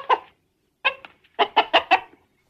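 A chicken clucks: one short cluck, a brief pause, then a quick run of four or five clucks in a row, clear and fairly loud with no talking.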